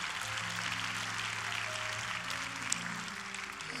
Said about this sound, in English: Let's give Sister Ellison another rising applause.